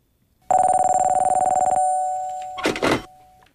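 An old-style telephone bell rings in a rapid, rattling burst for about a second, then stops, followed by a couple of clicks as the handset is picked up.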